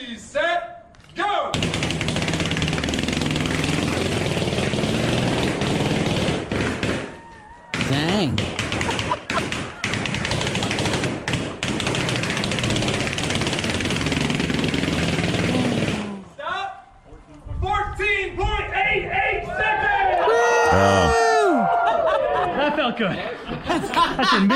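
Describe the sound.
A loud, dense barrage of 472 balloons attached to a wall popped with a nail by a man running alongside them in about 14 seconds, merging into a crackling roar with one brief gap, followed by laughter and people talking.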